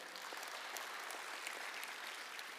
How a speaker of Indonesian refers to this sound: Sorak-sorai buat Tuhan, amin.